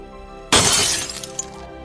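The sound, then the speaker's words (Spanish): A glass laboratory flask, dropped in a fall while being carried, shatters with a sudden loud crash, followed by a bright spray of tinkling shards that scatter and settle over about a second, with no voices. “caí, se rompió el matraz en donde transportábamos esto.”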